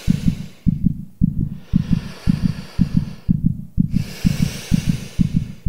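Heavy, tense breathing of several people gathered in a house swells in slow, hissing waves, layered over a steady, fast thumping heartbeat; no one speaks.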